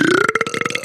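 A single loud, drawn-out burp with a rough, croaking rattle, heard on its own without any talking.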